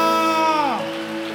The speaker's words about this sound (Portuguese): Nós aplaudimos o teu nome grandioso e maravilhoso. Aleluia!